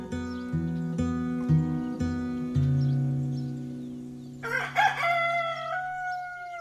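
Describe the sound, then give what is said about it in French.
A steady run of low, rhythmic clucks from chickens gives way to a loud rooster crow that rises and holds in a long, bright call. “il pensait déjà au champ plein d'admiration des poules et des poussins.”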